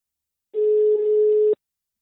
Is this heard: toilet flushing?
no